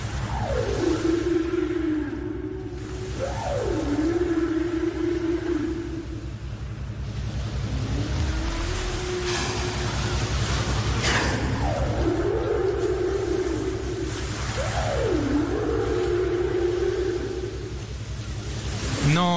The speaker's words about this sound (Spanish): Bueno, aquí estoy sumergiendo el micrófono, no se preocupen que, que es a prueba de agua, y escuchemos cómo suena el canto de las ballenas.